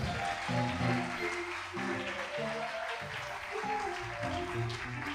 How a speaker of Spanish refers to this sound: Dame un aplauso a Cristo bien fuerte aquí, gloria a Dios.